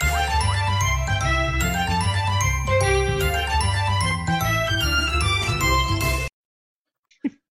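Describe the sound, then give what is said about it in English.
Kirby's victory theme from the Kirby games on Nintendo: a bright, upbeat video game victory jingle plays loudly for about six seconds over a bouncy bass line, then cuts off abruptly, followed by silence and a brief faint sound. “That, folks, if you don't play Kirby games on your Nintendo, is Kirby's victory theme.”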